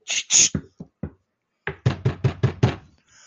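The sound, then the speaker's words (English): A quick series of five evenly spaced loud knocks on a door, after a few scattered softer taps and noises and a short pause. “who is it?”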